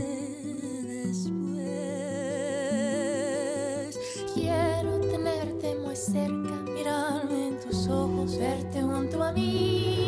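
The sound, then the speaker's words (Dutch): A woman sings a cover version of a slow, romantic bolero in Spanish with rich vibrato, her voice prominent over a steady, mellow instrumental accompaniment throughout. “En ze heeft een cover gemaakt van uh, …”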